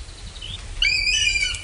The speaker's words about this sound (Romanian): Uliu! Uliu! Ăsta e, mă! Doamne, ce seamănă păsările astea!